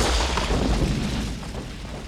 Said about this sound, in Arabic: بركان اسفر عنه انفجار جعل اي شخص يقف في مجاله يفقد سمعه على الفور هذا البركان يعد من اسوا البراكين التي انفجرت على الاطلاق